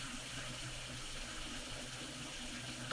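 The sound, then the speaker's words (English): A steady stream of water runs from a water fountain into a water bottle, a continuous hissing splash that holds even for the whole stretch with no voices. “usually when I'm doing this, I'm in front of a water fountain, putting water in my bottle.”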